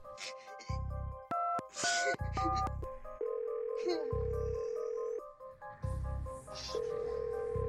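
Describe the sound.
Steady electronic tones step through a phone-line sequence, like dialing followed by a ringing signal, as an emergency call to 112 is placed and routed to 911. The tones are layered over low rumbling noise and snatches of talk in the background.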